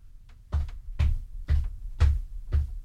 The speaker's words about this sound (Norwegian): Ok, tramping. Ja, det var lyd nummer én.